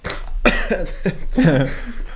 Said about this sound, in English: Sorry for my cough.